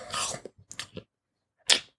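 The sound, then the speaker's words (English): Wet chomping of someone biting into a whole peeled banana without breaking it off: a smacking mouthful, a few quick chewing clicks, a pause, then one more sharp bite. No one speaks. “That the crunchy peanut butter to me is what eating a whole banana without breaking it off is to you.”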